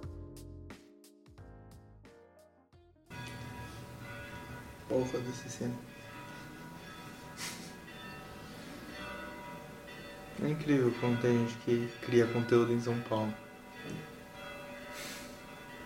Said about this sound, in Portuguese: O padre resolveu bater meia hora de sino agora. Puta que deve ser seis horas, né?